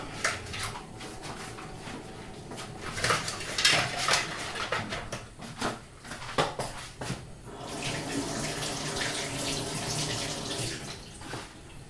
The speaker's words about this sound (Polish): W tym momencie, w międzyczasie tak zwanym, możemy sobie umyć już jajka.